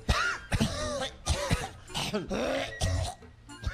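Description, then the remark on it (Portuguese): A storyteller performs exaggerated, theatrical coughing, imitating a flea with a huge cough in a joke: a string of about six harsh, rasping coughs with throaty, voiced edges, coming in uneven bursts with brief pauses between them. “se encontraram um dia, uma delas com uma tosse que não tinha tamanho.”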